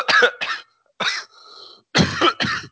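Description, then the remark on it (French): A person coughs in a quick series of harsh bursts, two pairs separated by a brief wheezy intake of breath, with no talking. “j'ai trouvé une technique, je m'appuie sur la gorge. Alors, je sais pas si ça change ma voix, mais euh, donc ça m'empêche de tousser un petit peu.”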